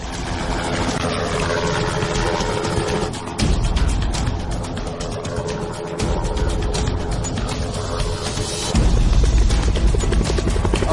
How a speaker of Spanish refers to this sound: Sí, ahí está, vuela muy bajo. Helicóptero militar.